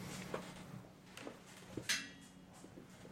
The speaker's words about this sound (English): Oh wait, my door is opening. Hold on.